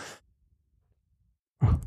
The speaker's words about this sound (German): Ich muss noch mal kurz husten.